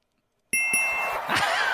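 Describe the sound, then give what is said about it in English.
A quiz buzzer bell is pushed: a sharp metallic ding, quickly struck again, then a bright ringing tone that lingers and slowly fades, with some faint rustling underneath. “I've never been angrier to push that bell before.”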